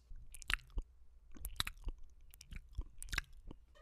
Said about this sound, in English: What is that? The sound of my tongue separating from the roof of my mouth. Oh, I thought that was a mouse click.